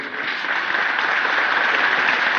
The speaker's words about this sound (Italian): Sono certissimo e i vostri applausi me lo confermano che tutti coloro che sono in ascolto in questo momento si uniscono al mio augurio di una prontissima guarigione